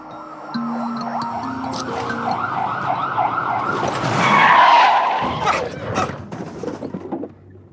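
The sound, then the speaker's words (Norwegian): In a Norwegian film scene, an ambulance siren wails, then tires screech into a loud crash as the ambulance hits Trond Espen Seim riding a scooter, followed by a brief stretch of fading noise before the sound cuts off. “Ehm, Trond Espen Seim følger etter på scooter, og man får den samme kollisjonen med ambulansen, bare at det nå er Trond Espen Seim som blir påkjørt i stedet for Leon.”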